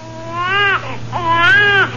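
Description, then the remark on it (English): A baby, heard somewhere far off, wails in two long, strained bursts, each high, harmonic cry rising and then bending downward, with a short catch of breath between them. A low steady hum runs underneath. “Somewhere far off, I heard the baby crying in my wife's voice.”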